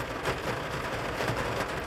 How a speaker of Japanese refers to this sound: というか雨音うるさいね、今日。先日、ね、あの雨の音もたまにはいい BGM になるんじゃないでしょうかみたいな、そんなシャレこいたこと言ってたと思うんですけど、なんかもう割と雑音なレベルで大きくなってますね、今日は。雨が。